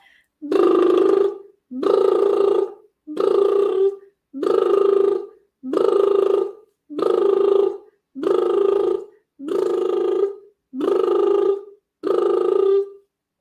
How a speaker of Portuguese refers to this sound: Dez vezes o som vibrante de lábios. Posso fazer mais dez vezes, tá bem?